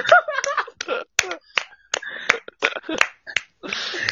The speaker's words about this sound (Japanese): みんなこのエッチな二人に拍手だ